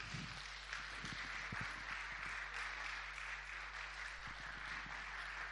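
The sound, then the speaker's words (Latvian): A church audience claps steadily for several seconds, a modest, even patter of many hands with no cheering or voices on top, holding at a fairly quiet level throughout. “Aplausi noteikti varēja būt lielāki.”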